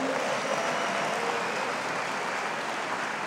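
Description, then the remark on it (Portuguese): A church audience applauds God steadily, a dense, even wash of many hands clapping that holds at a constant loudness for the whole stretch without any voices rising above it. “Só quem acredita, aplaudi, aplauda Ele.”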